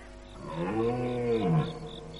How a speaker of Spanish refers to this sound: Durante toda la noche estuve oyendo por acá y por allá, tan pronto lejos como cerca, el bramido de los ciervos que se llamaban unos a otros y de vez en cuando sentía moverse el ramaje a mis espaldas.